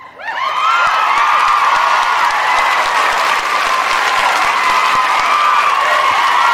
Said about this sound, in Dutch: Dus eh, Jan, voor jou een hartelijk applaus vanuit, eh, vanuit onze kant.